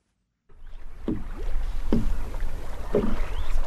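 Water sloshing and splashing around a small boat on Lake Naivasha, with three rhythmic paddle or oar strokes about a second apart over a steady wash of wind and lapping water.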